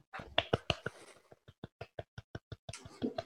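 A run of about ten soft, muffled hand claps at a steady, quick rhythm, close and fairly quiet, with brief bursts of voice or laughter before and after.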